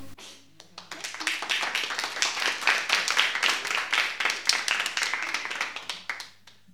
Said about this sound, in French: Et je vous invite à applaudir simplement pour encourager ceux qui sont aujourd'hui sur le plateau.